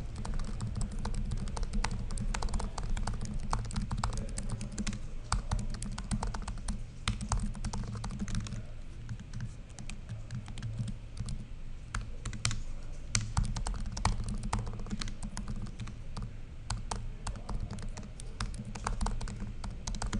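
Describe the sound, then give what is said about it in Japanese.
Rapid, continuous typing on the second-generation butterfly keyboard of a 2016 13-inch MacBook Pro, with dense shallow clicks and taps running steadily for about twenty seconds, with no voices. “最初は、あ2010、6年モデルの MacBook Pro 13インチ。これは、いわゆる第2世代キーボードってやつですね。”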